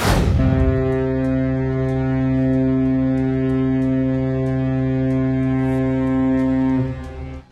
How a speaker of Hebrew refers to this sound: צופר נשמע הבוקר בנמל של אודסה בפעם הראשונה מאז החלה המלחמה באוקראינה. ספינה אוקראינית עמוסה תבואה יצאה לדרכה במסגרת הסכם שמאפשר לאוקראינה לייצא חיטה.